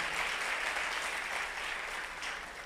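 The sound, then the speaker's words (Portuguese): An audience at an evening church service applauds the Lord Jesus together in a steady, dense wash of clapping that holds at an even level for a few seconds, easing off slightly toward the end. “Quem crê nisso, aplauda o Senhor Jesus.”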